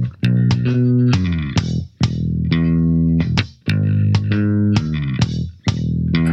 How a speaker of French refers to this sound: il s'agit d'une démo d'une basse qui est duckée quand il y a le kick.